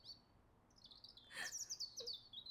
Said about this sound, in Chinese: 丹影和渊羽等了好久，四周就只有鸟叫声和树屋上奇幻仙子的呜咽声。